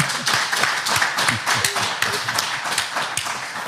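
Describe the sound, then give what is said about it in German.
A small group of people, seated spaced apart, claps steadily for Hansi Flick, with dense overlapping hand claps forming a brief, moderately loud round of applause and no voices. “Wir haben heute ein paar Leute da, alles sitzen in so einem Abstand, aber gibt mal einen schönen Applaus heute an Hansi Flick.”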